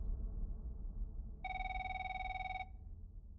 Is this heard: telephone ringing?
yes